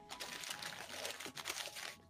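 Paper rustles and crinkles in a steady burst of crackly noise as gift wrapping paper is torn and crumpled, continuing for a couple of seconds with no voices.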